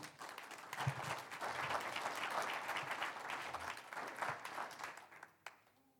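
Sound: audience applauding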